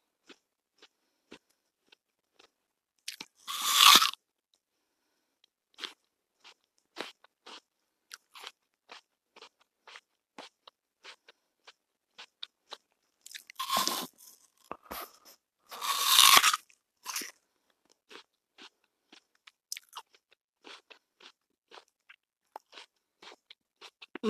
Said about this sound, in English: By the way, I'm munching on an apple.